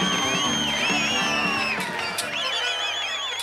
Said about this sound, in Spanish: Entre el público estaba el periodista Bernardo Neustadt, que tuvo que irse por el abucheo de la gente.